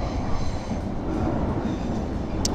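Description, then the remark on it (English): A metro train rumbles past, a steady, loud low roar with rattling and a brief high squeal near the end, no voices over it. “I guess that metro train coming by is a sign that I should keep on with my walk.”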